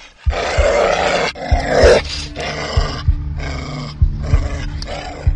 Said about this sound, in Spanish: Pero en el barrio de Roces, en Gijón, preocupaban cosas más mundanas. Que el día 14 de enero, un enorme mastín canelo fue visto con abundante espuma saltándole de las belfas y con la agresividad y locura propias de un perro rabioso.